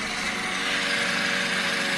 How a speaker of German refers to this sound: So. Ich bin das mit einem Rasenmäher.